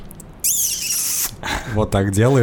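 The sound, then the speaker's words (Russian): A voice imitates a long, loud, squeaky kiss: a high-pitched smacking squeal held for nearly a second, followed by a man talking. There is a brief sniff at the start. “Но ну, это, знаешь, это звук похож на то, когда ты кого-то очень сильно целуешь в щеку и такой...”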